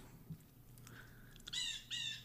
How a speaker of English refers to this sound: can you hear the birds